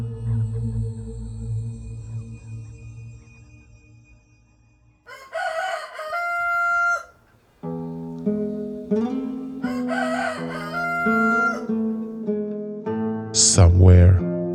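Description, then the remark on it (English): A rooster crows twice in the distance in long, drawn-out cock-a-doodle-doos, the second call extended and rising at the end, over a low steady hum in the background. “a rooster crowed, indicating an end to their unforgettable night.”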